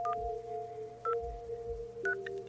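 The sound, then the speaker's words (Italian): A telephone number being dialed, heard from the hanging handset of a village public phone booth thought to be out of service: three short keypad tone beeps, about a second apart, sounding over a steady humming line tone and a low rumble, with no voices. “O così pensavo, visto che all'improvviso si è accesa e dalla cornetta si sentiva esattamente il suono della composizione di un numero.”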